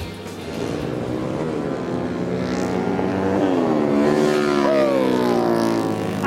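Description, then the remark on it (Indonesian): Supermoto motorcycles race past at a supermoto racing event in Indonesia, the final round of a series, with national and international riders; loud, continuous engine whine, revs climbing and shifting as the bikes accelerate nearby, several engines overlapping with no talking. “ajang balap supermoto kayak yang ada di sebelah saya ini mungkin masih asing bagi sejumlah penggemar balap yang ada di Indonesia.”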